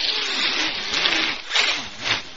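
A person blowing their nose: a sustained, rough, breathy rush of air that surges in three or so stronger pushes over a couple of seconds, fairly loud with no talking.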